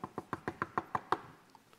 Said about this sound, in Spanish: Pero para no hacérsela muy larga y porque se me acabó el tiempo, llega y toca la última puerta.